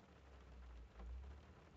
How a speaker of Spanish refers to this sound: viene como que muy ad hoc, ¿verdad? Porque está lloviendo.